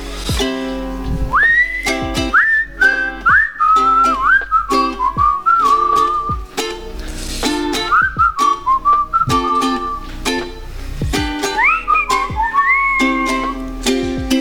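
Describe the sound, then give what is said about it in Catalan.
A melodic tune is whistled over a strummed ukulele, the whistle gliding through clear sustained phrases while the chords keep a steady, upbeat rhythm throughout. “Si us sembla, passeu-me ukelele, que farem una mica de xiuladera.”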